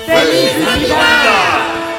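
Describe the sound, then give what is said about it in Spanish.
A crowd of voices shouts together in one sustained, loud cheer, rising and falling in pitch over about two seconds with no spoken words. “Entonces, múltiples voces gritaron al unísono.”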